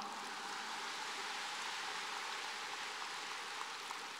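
An audience applauds steadily for several seconds, many hands clapping into a dense, even hiss with no break or swell and no voices over it.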